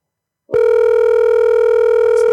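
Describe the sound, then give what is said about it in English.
A steady, loud telephone dial tone of an outgoing call, placed to call a man back, starts abruptly after a brief silence and holds continuously without interruption, a clean electronic hum with no voices over it. “We're going to call this guy back.”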